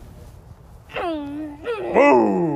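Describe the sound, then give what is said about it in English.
A child's voice imitates a motorcycle with a few drawn-out, sliding engine-like tones, fairly loud, mixed with a brief exclamation. “That was a motorcycle, though.”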